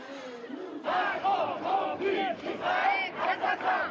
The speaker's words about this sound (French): Le débat continue aussi dans la population française, avec hier une manifestation autorisée à Paris en soutien au peuple palestinien.